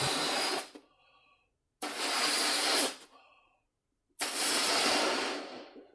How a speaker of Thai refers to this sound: This is the sound of someone's inflating a balloon. That basically means someone is blowing air into a balloon.